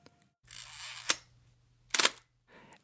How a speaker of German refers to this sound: Es ist das Auslösegeräusch einer alten Pentacon 6 TL. Gebaut wurden diese Kameras in den 70er und 80er Jahren in Dresden. Und sie klingt, wie sie sich anfühlt, wertig und mächtig. Mit Objektiv und Prismensucher wiegt sie über 2 Kilogramm